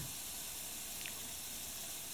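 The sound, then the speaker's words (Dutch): A kitchen tap is left running steadily into a sink where a spoon has just been laid, a continuous soft rush of water lasting the whole moment with no voices, fairly quiet. “Elma haalde diep adem en legde de lepel in de gootsteen, liet de kraan lopen.”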